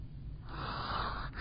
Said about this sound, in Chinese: 哇哦，波波尼，你的哈欠也打得蛮棒的耶！